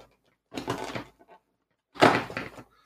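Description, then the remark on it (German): Two short bursts of crinkly rustling, like a package being torn open and handled, fairly loud, with a brief pause between them and no talking. “Was ist denn hier drin, Freunde? Es, es raschelt, es, äh, es weihnachtet.”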